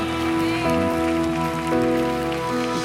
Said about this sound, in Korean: 믿으시는 만큼만 주님께 감사와 영광의 박수 한번 올려드립시다 할렐루야 주님을 찬양합니다